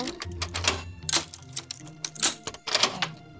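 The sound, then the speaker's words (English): A metallic key scrapes and clicks inside the keyhole of a door in the floor, with a few sharp rattles and a final clunk as it turns and the latch gives way, unlocking the door. “The door in the floor is unlocked.”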